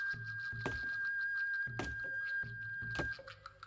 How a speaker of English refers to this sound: They brought their axes, their spears, and their swords, and they began to cut down the Ceiba until they knocked it to the ground.